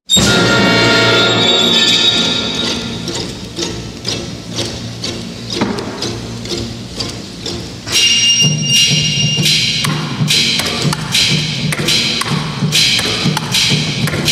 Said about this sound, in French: T'entends Oui, oui, c'est du ping-pong. Il s'agit du triple concerto pour ping-pong, percussion, violon et orchestre composé par Andy Akio. Non, non, non, non, tu rêves pas. Sur la scène, il y a un orchestre symphonique